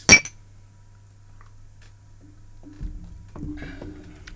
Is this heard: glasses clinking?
yes